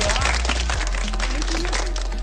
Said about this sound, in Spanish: Oye, despegámoslo acá con un fuerte aplauso.